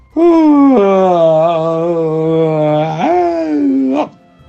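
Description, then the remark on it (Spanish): A long, drawn-out vocal yawn lasting about four seconds, loud, its pitch sagging low before lifting at the end. A human voice imitating a tired yawn. “Mamá Ciervo y Cervatilla suspiran cansadas y bostezan también.”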